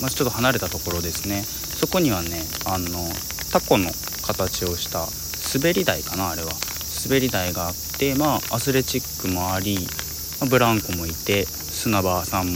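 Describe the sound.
A steady, continuous high-pitched drone of cicadas buzzes outdoors throughout with light rain falling, in a plaza beside a library in Nerima Ward, sitting behind a man talking.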